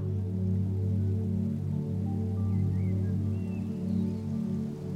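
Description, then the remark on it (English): A steady, continuous rush of small waterfalls splashes into a calm pool, with a low droning hum underneath and faint, brief bird chirps. “You can hear the sounds of small waterfalls all around you.”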